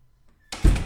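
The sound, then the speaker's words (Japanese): After a brief hush, the door of a research laboratory opens with a sudden scraping rush and a heavy low thud, loud and abrupt, with no voices. “自身の研究室の扉を開いた。”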